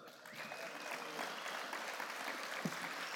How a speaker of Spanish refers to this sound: ¿Cuánto le damos aplauso a Dios por eso?